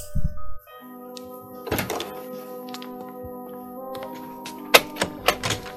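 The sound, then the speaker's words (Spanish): An apartment door is opened and closed: a dull thunk, then a rattle and a few sharp knocks and clicks as it closes, fairly quiet over a steady low hum, with no voices. “sin decir nada, se fue a la puerta del piso, la abrió, la cerró para que el otro creyera que se había ido y volvió a subir sus pasos.”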